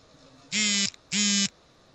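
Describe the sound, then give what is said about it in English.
A mobile phone vibrates on a hard surface, two loud, even buzzes of about half a second each, separated by a short pause, against a quiet background with no voices. “Somebody's phone's bad. going off.”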